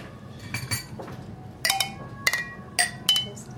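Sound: drinking glasses clinking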